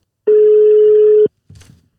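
A phone call rings out: one loud, steady, mid-pitched ringback tone lasts about a second, then a short, softer clatter follows as the line connects.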